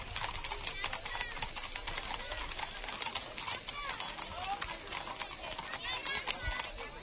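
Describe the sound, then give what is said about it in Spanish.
Horse hooves clop steadily and close by, many hoofbeats overlapping in a busy procession, with a crowd murmuring and some voices in the background; a typical Rocío pilgrimage sound, recorded with the 101.8 Hispanidad Radio de Huelva microphone carried almost between the horses' legs. “entre medio, casi entre medio de las patas de ellos, va nuestro micrófono, el micrófono del 101.8 de Hispanidad Radio de Huelva.”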